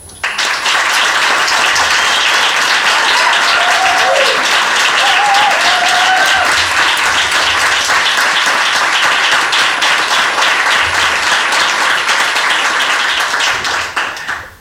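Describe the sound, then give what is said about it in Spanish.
Sustained audience applause for Headbanger for hosting the show in its space, a dense, steady wash of many hands clapping for about fourteen seconds at an even loudness, with a few faint whistles rising briefly above it. “Por eso este primer aplauso va a Headbanger por acercar la luna a su espacio.”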